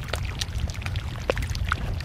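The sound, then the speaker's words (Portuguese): Scattered tiny pops and crackles from glacier ice and small iceberg fragments releasing air bubbles trapped under the glacier's tons of weight, irregular, over a steady low watery wash with no voices. “filhotes de icebergs, enquanto escutamos o gelo a estalar, libertando bolhas de ar que foram aprisionadas pelas toneladas do glaciar.”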